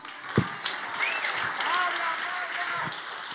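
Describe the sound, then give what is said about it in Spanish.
An audience breaks into steady, dense applause that holds at an even loudness throughout, with a few shouts and rising whistles cutting through the clapping. “Y si tú vas a dar un aplauso,”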